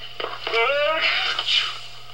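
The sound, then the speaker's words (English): A single sneeze brought on by allergies to flowers: a drawn-out, rising voiced intake leads into a loud, breathy burst, with no talking around it and a faint steady hum underneath. “Gesundheit.”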